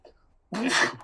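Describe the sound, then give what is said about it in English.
One sudden, forceful sneeze bursts out after half a second of near silence, loud, with a harsh airy spray that trails off quickly. “Bless you.”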